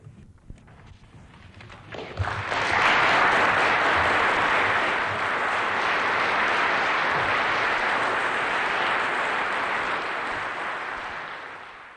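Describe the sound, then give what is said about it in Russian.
Sustained applause from a large audience fills a reverberant assembly hall at the university in Oslo, Norway, after Yelena Bonner read Andrei Sakharov's Nobel lecture on his behalf, swelling up after a quiet start and holding steady before beginning to taper off toward the end. “Итак, стихают аплодисменты в актовом зале университета города Осло, норвежской столицы, где только что супруга академика Андрея Дмитриевича Сахарова Елена Георгиевна Боннер – прочитала от имени своего мужа, Нобелевского лауреата, его лекцию”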